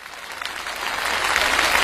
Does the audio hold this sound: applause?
yes